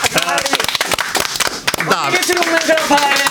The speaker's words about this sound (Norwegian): Vi gir deg en klapp. Kom igjen, gutta!